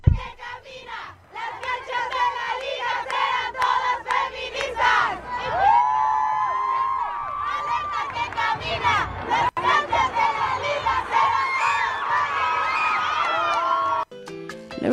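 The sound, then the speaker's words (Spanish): A large crowd of women fans chants in unison in a football stadium at a match that ended 0-0, green kerchiefs in hand, with the chant "futbolista hermana, aquí está tu manada"; loud rhythmic voices with cheering and whoops, sustained throughout with the full roar of fans. “la afición, la afición de mujeres nos enseñó que a los verdes en mano y consignas al ritmo de futbolista hermana aquí está tu manada, se dio este encuentro.”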